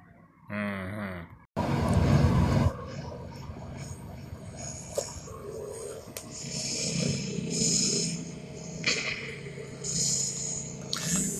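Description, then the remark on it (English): The Cybercopter gunship roars by with a rough, chopping drone, starting with a short whine and a sudden loud burst before settling into a steady, noisy engine rumble with high mechanical whirring on top. “I had to stop by the first stop of the Cybercopter gunship.”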